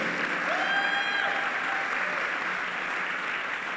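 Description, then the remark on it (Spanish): A church audience applauds steadily, a dense, even wash of clapping that holds at a constant loudness throughout, with a brief whistle-like tone rising over it early on. “Dese un aplauso porque se está dejando usar por Dios, porque hay un avivamiento en esta iglesia.”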